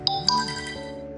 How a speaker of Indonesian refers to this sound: Maaf ya ada notif.